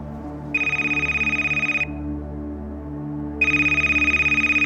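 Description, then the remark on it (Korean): A mobile phone ringtone for an incoming call sounds in two bursts, a bright pulsing electronic trill about a second long each, separated by a pause, over a low steady hum. No one speaks. “휴대폰으로 전화가 걸려왔어요.”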